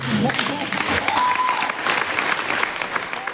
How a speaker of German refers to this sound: damit sie sich ihren äh, mehr als verdammten Applaus erfreuen.